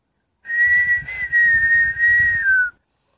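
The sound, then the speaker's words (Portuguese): A person whistles a bird call, imitating a great kiskadee: a clear, steady tone in three joined phrases, gliding slightly downward at the end, with no talking. “E um BTV que cantava.”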